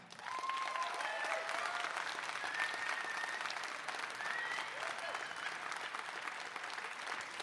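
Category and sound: crowd, audience applause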